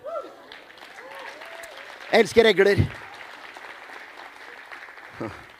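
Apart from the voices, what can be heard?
lukewarm applause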